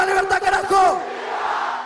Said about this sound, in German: Viva la libertad, ja, und, und die Menge brüllt zurück, Millet Präsident.